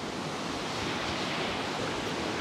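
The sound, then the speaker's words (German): Steady rushing of water and breaking waves outdoors in heavy rain, a broad continuous wash with wind buffeting the microphone, fairly loud, with no one speaking. “ich drehe mal gerade, dann könnt ihr das Wasser mal sehen.”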